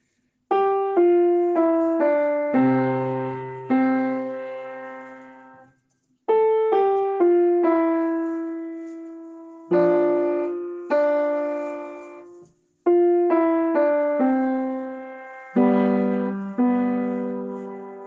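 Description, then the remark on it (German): A solo piano plays the player's own gentle song in several phrases, each note ringing and fading after its strike, with short pauses between phrases. Clear, with no voices. “Ich spiele Klavier, weil die Melodien so schön sind. Hier mein Lied.”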